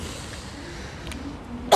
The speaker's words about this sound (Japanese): まだ咳が出てるますね出てるますね出てるますです